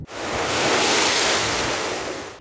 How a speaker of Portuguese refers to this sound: O mar ficou tão agitado que mal dava para ver a faixa de areia. Nas ilhas da Baía de Todos os Santos, a maré avançou ainda mais e atingiu as casas.